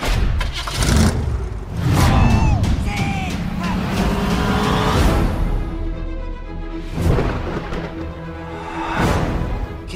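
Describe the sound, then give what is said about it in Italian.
A station wagon's engine runs, its steady rumble rising and falling as it revs a few times, with rattling and mechanical whine throughout the ten seconds. “Hai scelto la station wagon? È l'unica che ha il motore.”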